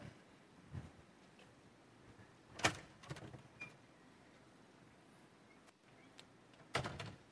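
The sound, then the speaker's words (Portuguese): A door being opened, with two louder clattering bursts and a few softer knocks and rattles between them, with no one talking. “Como é que eu entro nessa porta aqui? Ela tem que estar aberta.”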